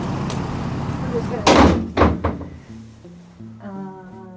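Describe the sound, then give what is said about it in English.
A heavy side door of a jail, not the main entrance, is pulled open, with a few solid clunks and a rattle of the latch, followed by a muffled voice and low hum as it settles. “Shannon walks to this side door of the jail, like definitely not the main entrance. And she just opens it.”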